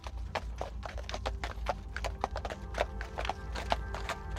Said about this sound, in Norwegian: Sto opp klokka fire om ettermiddagen, la seg klokka fire om morgenen, og rundt midnatt da likte hun å ta en kjøretur rundt i Stockholm med hest og vogn.